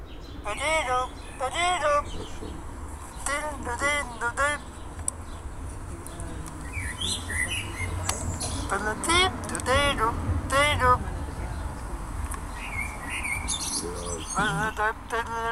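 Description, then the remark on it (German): A dense chorus of many birds in a tree chirping and tweeting at once, steady and overlapping throughout, with a low hum of traffic underneath. “Das ist der Baum im, im, Hintergrund. Und da wimmelt es nur von Vögeln.”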